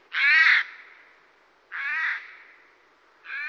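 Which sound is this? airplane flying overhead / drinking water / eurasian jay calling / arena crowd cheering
eurasian jay calling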